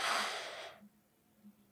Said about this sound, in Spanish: El mindful breathing es un poco distinto a la meditación tradicional porque el mindful breathing directamente lo que quiere es que te concentres en la respiración y hay intervalos, es como de vale, dos segundos inspiras,